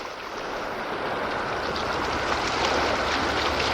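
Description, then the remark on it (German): A motorboat engine drones steadily across open water off the beach at Malibu in the evening, growing slightly louder as it approaches, with the wash of the sea mixed into the continuous rumble. No one speaks. “Hört ihr das? Ein Motorboot.”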